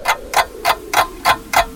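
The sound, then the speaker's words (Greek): A clock ticks steadily, six crisp, evenly spaced ticks about three per second, clear over a faint low hum, with no voices. “είναι σαν να σταματάς το ρολόι σου νομίζοντας και ότι ο χρόνος σταματά.”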